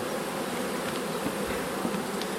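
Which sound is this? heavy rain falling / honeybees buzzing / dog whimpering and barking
honeybees buzzing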